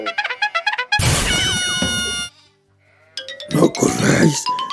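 Sheep bleat loudly, a long wavering cry followed by another burst after a brief quiet, with short harmonic calls at the start that sound like a voice mimicking them.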